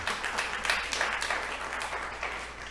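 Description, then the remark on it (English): An audience applauds a man's wife of nearly 20 years, a dense, even wash of many hands clapping at moderate loudness with no single claps standing out, and no one speaks over it. “Thank you for applauding her.”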